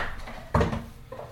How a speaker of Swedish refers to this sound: Jag inte fan han är på, viker upp sin gungstol.